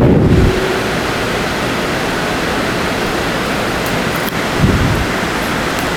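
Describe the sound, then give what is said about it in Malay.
A steady, dense roar of heavy rain fills the whole recording, with deep low rumbles swelling at the very start and again near the end, like thunder. No one speaks. “5 menit saja mau pulang juga hujan”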